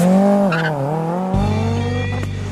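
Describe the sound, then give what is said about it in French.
A Renault R5 Turbo sports car, with its engine mounted centrally at the rear, roars loudly with a strong, wavering tone, then a deep rumble kicks in as it accelerates, with a tire squeal mixed in. No voices. “Fort de son succès, Renault va la décliner dans plusieurs versions, dont la cultissime R5 Turbo avec moteur en position centrale arrière, bombinette qui peut atteindre les 202 km/h et qui avale le 0 à 100 en 6 secondes 9.”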